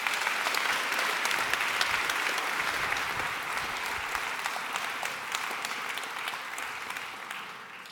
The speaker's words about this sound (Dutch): Graag een heel hartelijk applaus voor professor Dr. Ingrid Robijns.